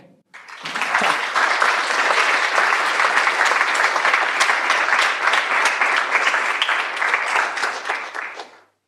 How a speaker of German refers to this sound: Applaus für Marina Frank.